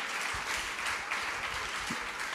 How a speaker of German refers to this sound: Einmal bitte einen Applaus für Bettina Böttinger. Die hilft mir hier raus.